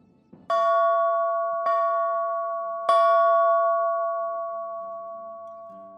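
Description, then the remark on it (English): The ship's bell of the British warship HMS Wasp rings loudly three times at uneven intervals, each strike bright and metallic, its tone ringing on and slowly fading between strikes, with faint low murmurs near the end. “That's not the sound of a church bell, but the bell from a British warship, HMS Wasp.”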